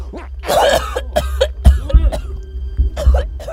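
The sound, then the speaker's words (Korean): Repeated harsh retching and coughing from a person who has slumped down to the ground: a longer strained heave, then a quick string of sharp coughs and gags in irregular bursts, with no other talk. “그 자리에 주저앉아서 미친 듯이 헛구역질을 하기 시작했어요.”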